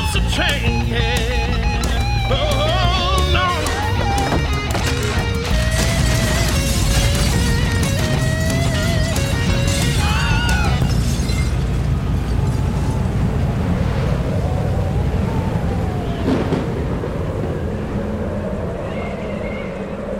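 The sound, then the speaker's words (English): A tornado roars without pause while debris crashes and tears loose in repeated bursts, a deep rumble underneath and shrill, whining tones cutting through the din. It rips a big chunk of roof off the Gaslight and knocks out power up and down Beale Street. It eases slightly near the end. “It took a big chunk of the roof right off the top of the gaslight and then knocked out power up and down Beale Street as it spun away.”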